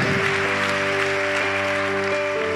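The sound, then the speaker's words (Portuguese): An audience applauds loudly for the name of Jesus as people rise to their feet, a dense, steady wash of clapping from many hands, with sustained keyboard chords ringing underneath throughout. “Vamos aplaudir bem alto o nome de Jesus. Já aplaude, vai se colocando de pé.”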